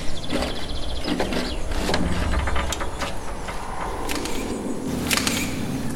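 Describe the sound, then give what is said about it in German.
Mechanical noise from a camera at a mausoleum in an overgrown clearing: a few sharp clicks and faint whirring scattered over a steady, rumbling background hum, moderately loud, with no one talking. “Dieses Geräusch. Das war meine Kamera.”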